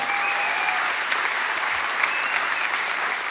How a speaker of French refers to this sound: Alors. Vous pouvez applaudir.